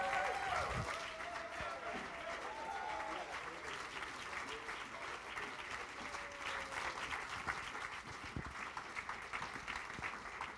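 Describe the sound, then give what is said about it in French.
An audience at a French-language church service stands and claps warmly and steadily for about ten seconds to welcome a speaker, a dense, even wash of many hands, with a few voices calling out faintly beneath the applause. “Est-ce qu'on peut se lever, l'accueillir?”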